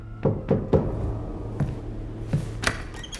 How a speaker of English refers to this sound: He needs a plan, but before he can come up with one, there's a knock on his door.